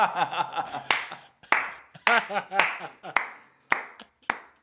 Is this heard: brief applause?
yes